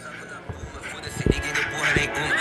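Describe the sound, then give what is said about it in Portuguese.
Someone beatboxes a drill beat with their mouth: three deep, thumping kick sounds spaced unevenly, mixed with clicks and breathy hiss, fairly loud. “Como que é um beatbox drill?”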